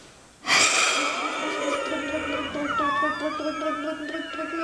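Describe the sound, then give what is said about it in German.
A sudden, forceful blast of breath bursts in after a brief quiet, then carries on as a long, loud exhalation with a wavering whistle-like tone running through it, as a person, after breathing in deeply, blows as hard as possible through the tube of a spirometer mouthpiece. “Machen Sie die Lunge maximal vollwärts, tief einatmen und mit einem Stoß und alles, was geht, reinpusten.”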